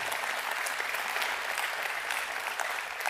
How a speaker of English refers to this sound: If we've done our job right, you will leave saying, look at the ways that God is working in and through the young men and women of our church. And hey, man, let's applaud that.